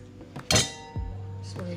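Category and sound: household object, glass clinking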